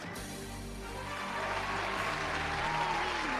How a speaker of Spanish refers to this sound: ponle un aplauso más largo